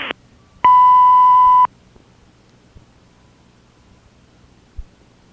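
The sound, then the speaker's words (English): A single steady electronic beep lasting about a second, loud and clear, like an answering machine tone over a phone line, followed by faint line hiss and a couple of soft clicks. “leave your name and number at the tone.”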